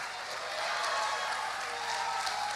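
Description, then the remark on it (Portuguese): Steady applause from a large crowd at a church gathering, applauding the word of the Lord: a dense wash of many hands clapping together at a fairly even level throughout, with no voices standing out above it. “Forte esse aplauso à palavra do Senhor.”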